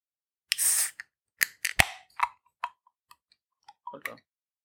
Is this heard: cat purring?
no